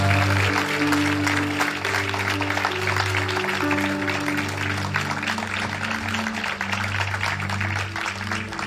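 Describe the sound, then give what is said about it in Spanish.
An audience at a church service applauds God steadily for several seconds after a prayer, a dense crackle of many hands clapping at once, while low sustained keyboard notes hum underneath. “Come Vamos otro aplauso.”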